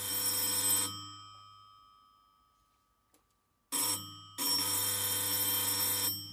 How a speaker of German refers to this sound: Alle sind in ihrer Arbeit vertieft, bis es plötzlich an der Tür klingelt.